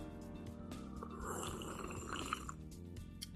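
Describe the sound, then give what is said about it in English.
A wet slurp of someone drinking a drink that is not water, recorded through a new microphone: one sustained sip of about a second with gurgly, throaty gulping noise right at the microphone and no talking. “That's the sound of my drink through a new microphone.”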